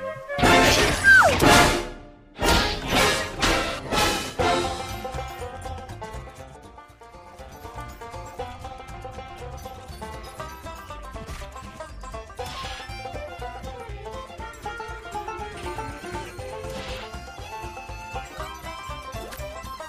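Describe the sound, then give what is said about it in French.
A bright, bouncy video game tune opens with a burst of loud crashing hits and rhythmic thumps, then settles into a steady, busy instrumental melody with no voices. It is music from a video game released at the end of 2011, part of the PS Vita launch line-up. “Mais il fait partie de la line-up et c'est toujours un plaisir d'écouter cette petite musique Qui a enchanté notre fin d'année 2011.”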